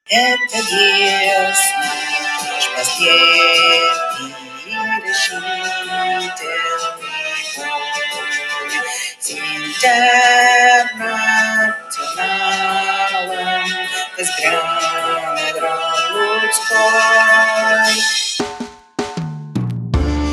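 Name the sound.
music box playing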